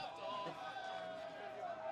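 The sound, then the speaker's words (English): A baseball crowd in Bowie yelling together in protest at the umpire, shouting "balk", a steady wash of many raised voices from the stands, held at a fairly constant level throughout without a break. “You're hearing some of the Bowie crowd yell balk.”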